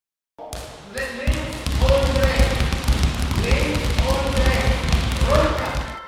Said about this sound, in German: Sie dribbeln mit dem Basketball, werfen ihn hin und her, laufen durch die Sporthalle. Die Schülerinnen und Schüler der 6. Klasse der Sir William Herschel Mittelschule in Ingolstadt.